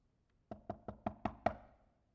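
Six quick, evenly spaced knocks rap on a wooden door, fairly loud, each with a hollow thud and a short ring, then silence.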